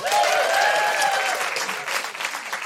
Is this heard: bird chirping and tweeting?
no